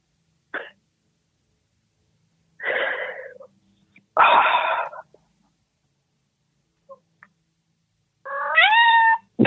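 A cat meows several times at irregular intervals, fairly loud, with quiet gaps between; the calls are drawn-out and wheezy, and the final meow rises in pitch.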